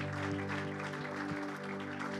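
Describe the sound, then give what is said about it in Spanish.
An audience applauds in praise of the Lord at the end of a church service, a dense wash of clapping that holds at an even level for a couple of seconds, with a sustained musical hum underneath. “Fuerte el aplauso de alabanza al Señor.”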